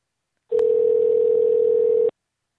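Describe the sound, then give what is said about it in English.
A telephone dial tone: one steady, mid-pitched hum held for about a second and a half, opening with a brief click and cutting off abruptly, with no voices. Someone is phoning about a Craigslist ad for a free paper shredder. “Um I'm calling about your Craigslist ad.”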